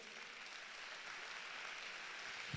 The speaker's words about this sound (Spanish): Dan un aplauso al Señor.